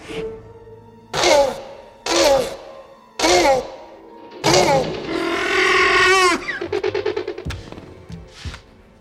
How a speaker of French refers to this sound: Il a utilisé des enregistrements de tortues pendant l'accouplement pour le vélociraptor.